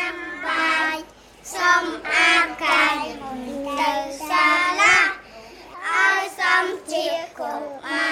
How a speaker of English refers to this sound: Inside, toddlers entertain us with songs they've learned in daycare.